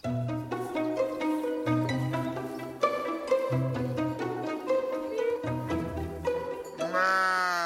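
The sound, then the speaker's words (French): A single loud, wavering bleat from a ewe raised for wool rings out at the very end, right after several seconds of steady instrumental music. “Vous élevez les brebis jusqu'à faire des pelotes, comment ça se passe Alors on les tond une fois par an.”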